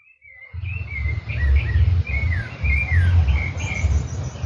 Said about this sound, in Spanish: Vemos como uno le canta y el otro le contesta. No sé si lo pueden apreciar, pero es muy claro entre uno y otro de haber 50 metros de distancia. Es la época de los pájaros, es la época de la primavera.